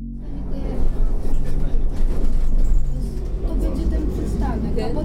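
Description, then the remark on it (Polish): A steady, low engine rumble fills the inside of a moving bus, with a continuous drone and faint indistinct murmuring in the background. “Sekundę po wejściu do autobusu czuję, że cuchnę.”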